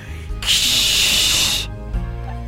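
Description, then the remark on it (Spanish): A voice imitates an insecticide spray with the mouth, made while passing with empty insecticide cans: one steady, loud hiss lasting just over a second, then stops abruptly, leaving quiet room noise. “Para que yo los viera, pasaban con los tubos de insecticida vacíos y hacían un ruido tipo”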